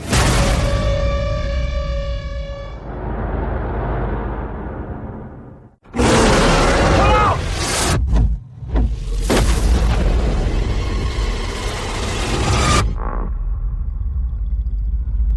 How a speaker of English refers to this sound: We use explosives to shake the earth, helping us to map the surface of the island. They're dropping bombs, mm.